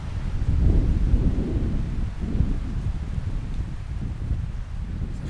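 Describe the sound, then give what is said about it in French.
Strong mistral wind blasts straight into a microphone held out toward the wind, producing a loud, continuous low roar and buffeting rumble that surges and eases slightly over several seconds, with no voices. “Donc là, Rudy Ricciotti tient son micro tendu vers le vent.”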